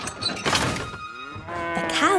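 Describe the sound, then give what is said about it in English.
Cows moo loudly from a livestock car pulled by Thomas the engine, its door flown open after banging into his buffers at a railway crossing; drawn-out harmonic calls rising and falling, with a thud and clatter at the start and some rumbling noise underneath. “And then two of the cows jumped out of the car.”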